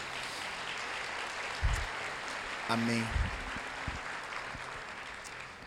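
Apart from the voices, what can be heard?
audience applauding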